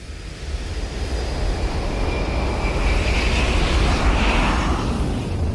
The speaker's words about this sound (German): We can take you from a pin drop to the thunder of a jet engine.